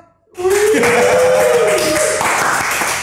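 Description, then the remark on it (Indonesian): A crowd bursts into loud, dense clapping after a brief silence and keeps applauding steadily to the end, with a sustained whistle-like tone rising and fading in the first half. “tepuk tangan dulu dong”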